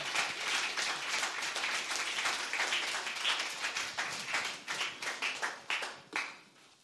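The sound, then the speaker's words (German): An audience applauds to welcome a guest, dense overlapping claps that hold steady for several seconds, then thin out into a few scattered claps before fading away. “So lasst uns ihm ganz herzlichen Applaus geben, dass ich wohlfühle, dass er weiß, wir freuen uns, dass er da ist.”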